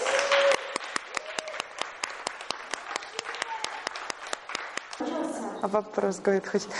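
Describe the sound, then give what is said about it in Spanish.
Steady, rhythmic applause: sharp claps land in even unison beats for about five seconds, with a voice faintly underneath. The clapping then stops and a person starts talking. “Excelente, aplausos.”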